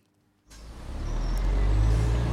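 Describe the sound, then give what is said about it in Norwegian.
After a brief hush, a city bus, the Snarøya bus in Oslo, Norway, suddenly roars up with a burst of airy hiss, its heavy engine rumbling steadily and growing slightly louder. No one speaks. “Jeg har nå tatt Snarøya-bussen ut til Snarøya”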